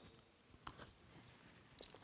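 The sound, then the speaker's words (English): Someone takes a quiet sip of water from a big cup: a few soft wet mouth clicks and a small swallow in near silence, with no talking. “Let me take a sip.”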